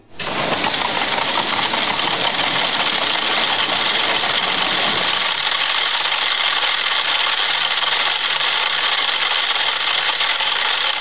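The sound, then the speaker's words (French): A dense, steady clatter of 100 metronomes ticking at different, carefully chosen, predetermined tempos in a 1962 symphonic poem for 100 metronomes, blending into a loud, continuous wooden rattle with no single beat standing out, and no voices. “Voilà, comme son nom l'indique, il s'agit de 100 métronomes jouant en même temps sur des tempos différents, soigneusement choisis et prédéterminés.”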